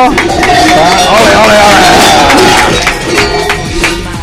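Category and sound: crowd, loud audience applause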